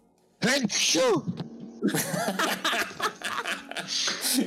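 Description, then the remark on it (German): A sudden loud sneeze with a rising, pitched vocal burst, followed by lively laughter and chatter from several people that continues to the end. “Gesundheit.”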